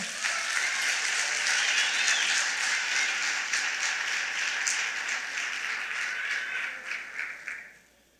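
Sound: audience applauding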